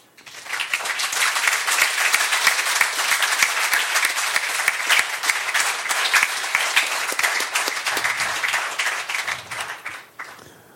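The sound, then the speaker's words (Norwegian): An audience applauds a 'Årets mårjeger' (marten hunter of the year) diploma from Jakt i Lierne, 2018-2019: steady, loud applause, many hands clapping in a dense patter that holds for about ten seconds before tapering off quickly at the end. “Ja, det kan vi ta applaus for.”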